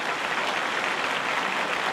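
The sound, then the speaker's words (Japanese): A crowd of a little over 8,000 at Hanshin Racecourse applauds as the horses head toward the starting gate before the 82nd Oka Sho in 2022, on a clear, hot day of 25.6°C; a dense wash of many hands clapping at an even, sustained level with no individual claps standing out and no voices. “スターター台の方に向かいますとお客さんが拍手今年は8000少々お客さん入っています”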